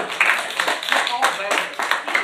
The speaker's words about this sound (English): Amen. Got a few hand claps out of there.